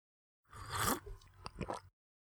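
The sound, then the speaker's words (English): A quiet slurping sip of the sweetest lemonade from a glass lasting about a second, followed by a couple of small wet mouth clicks and a swallow, with no talking. “Okay, try a little sip of this.”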